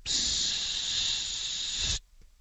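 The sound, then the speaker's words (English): A voice imitates the hiss of carburetor cleaner spray going into opened throttle blades to get an engine running: one steady, bright, airy hiss held for about two seconds, then cut off abruptly, followed by near silence. “I want you to try to get this running with some carb spray. So I want you to open up the throttle blades and go, you know”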